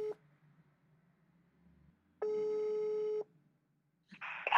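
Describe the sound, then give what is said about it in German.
A telephone ringback tone while calling a mountain hut: a steady, mid-pitched electronic burst lasting about a second, preceded by a brief tone blip, with a rustling clatter like a receiver being picked up at the end. “Ich rufe auf einer weiteren Hütte an, weil die sich ja alle in ihrer Versorgung sehr unterscheiden.”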